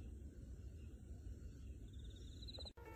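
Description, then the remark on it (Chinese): Crickets chirp at nightfall in a steady, high-pitched, continuous trill over a low rumbling background, with no voices, broken only by a brief dropout just before the end. “快来听，有没有听到蟋蟀的歌唱？”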